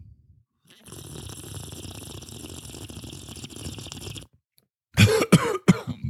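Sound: coughing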